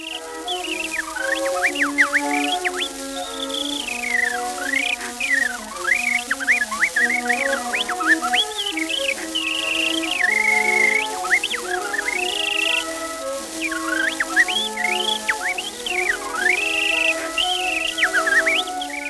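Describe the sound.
Kellogg, a famous performer, imitates birdsong entirely with his throat rather than whistling, producing a steady stream of rapid chirps, trills and swooping warbles, continuous, with no talking in between. Recording from the Library of Congress.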